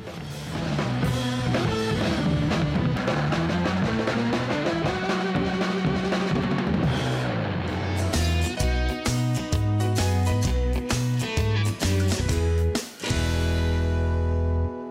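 A recorded music track plays loud and steady on the radio show Fakta på laurbær, layered melodic instruments over a driving beat, with heavier bass and percussion kicking in about halfway through. No one speaks.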